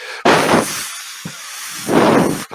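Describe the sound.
A voice imitates the white noise used to tune a room's acoustics, with two long, breathy hissing bursts and a short puff between them, fairly loud, with no other talking.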